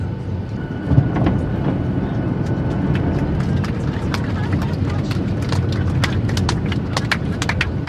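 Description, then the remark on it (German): Scattered, irregular clapping from a group of passengers applauding the safe landing of an airplane at Ben Gurion Airport in Israel, sharp claps building over a steady low engine rumble, with some voices mixed in. “Applaus für die sichere Landung.”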